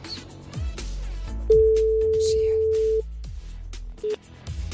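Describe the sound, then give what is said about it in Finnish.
An outgoing call's ringing tone as the Radio Energy morning show calls a listener after the green handset button is pressed: one steady, single-pitched beep lasting about a second and a half, then a brief second beep that cuts off, over low background rumble and faint muffled sounds. “Me aina täällä jo kättä tavallaan tervetulia sen merkiksi ja Jere painaa sitä vihreätä luuria, niin sit mennään.”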